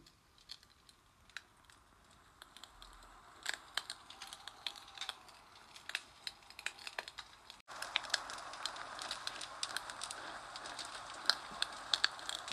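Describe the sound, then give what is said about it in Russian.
A crackling spring campfire with sharp, irregular pops and snaps over a soft hiss, turning noticeably louder and denser partway through. No voices. “Добро пожаловать к моему первому весеннему костру и к первой сказке этой весны.”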